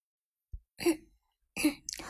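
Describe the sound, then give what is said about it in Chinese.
Two short, husky coughs about a second apart, preceded by a faint low thump, with no talking around them. “伍兹咳嗽一声，很腼腆的说道：“这是两个人距离最近的一次。”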